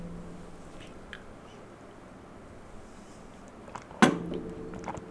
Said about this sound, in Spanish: Voy a beber agua. Espera.